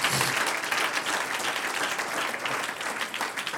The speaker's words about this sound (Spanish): Vamos a darle un aplauso al Señor, aleluya.